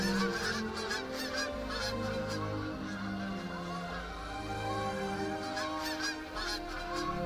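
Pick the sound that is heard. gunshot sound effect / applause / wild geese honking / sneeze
wild geese honking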